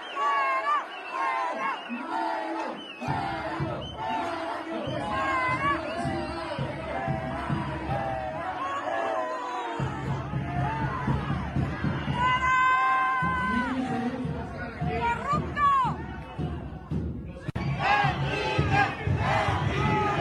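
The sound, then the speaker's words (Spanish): A large, angry crowd in Durango, Mexico, shouts and jeers loudly and continuously at a departing politician, many voices yelling "¡Fuera, corrupto!" over one another in rough, chant-like bursts with a steady low rumble underneath for the whole stretch. “Después de esto fue aporreado prácticamente, le aventaron huevos y en su salida esto fue lo que se escuchó. ¡Fuera,”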